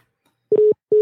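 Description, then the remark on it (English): Steady, loud electronic phone tone heard twice in short repeating pulses, the busy signal a line gives after the caller hangs up, with no talking over it. “Yeah, they hung up.”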